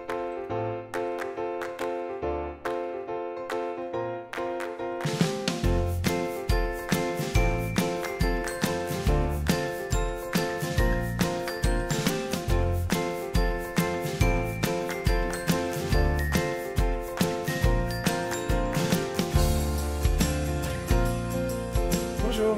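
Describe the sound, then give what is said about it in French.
A bright, tinkling opening theme jingle (générique) for a video series opens softly with chime-like notes, then a steady beat kicks in around five seconds and carries the upbeat theme at full, even loudness to the end. “Vous voulez savoir pourquoi Mais ben, Je vous donne tout de suite rendez-vous après le générique.”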